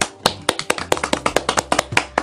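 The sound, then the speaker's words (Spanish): A short burst of hand clapping, around a dozen sharp, crisp claps in a quick, slightly uneven rhythm, fairly loud and with no voices over it. “Y pues bueno, esto sería todo por el día y un aplauso.”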